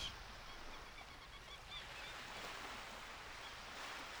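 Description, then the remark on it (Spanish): Steady ocean surf washes continuously onto a shore, a broad hissing rush of breaking waves with a slight swell midway, heard alone without voices. “Respira profundamente e imagina estar a la orilla del mar.”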